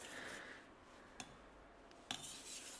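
Steady, fine scraping of a knife blade sliding over a whetstone as the edge gets finer and the grinding dust turns black, a soft continuous rasp with two brief clicks partway through. Fairly quiet, with no voices.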